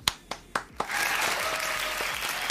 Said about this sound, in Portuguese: Funcionou as palmas.